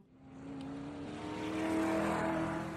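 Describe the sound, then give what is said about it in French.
A Formula 1 race car engine roars past with a high, buzzing whine that builds steadily in loudness, peaks, then begins to ease off as it goes by. No one speaks. “Monaco est un tout petit pays qui est aussi connu pour sa course de Formule 1.”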